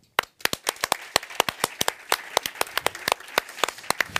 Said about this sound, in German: ein riesen Applaus für unsere Freunde von da, die den Merchstand machen, die uns unterstützt auf der Tour. Danke euch vielmals.